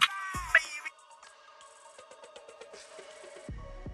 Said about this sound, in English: And sorry, that is my phone.